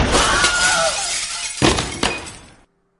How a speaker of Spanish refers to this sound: ¿Te parece normal entrar en casa rompiendo ventanas o qué?